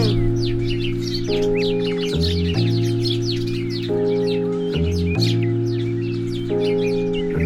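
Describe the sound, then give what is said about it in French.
Many birds chirp and tweet continuously in a busy, overlapping chorus, layered over a steady, loud synth-like musical drone that shifts chords every couple of seconds. “L'indifférence des oiseaux des humains.”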